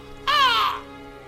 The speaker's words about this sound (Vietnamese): Ông quay lại lần nữa thì chợt nhận ra con quạ đen đậu trên cành đa chỉ cách ông có mấy thước. Ông giật mình nhặt cục đá ném lên. Con quạ kêu lên mấy tiếng ai oán rồi bay về chờ ông trên nhánh cây xoan bên hông nhà.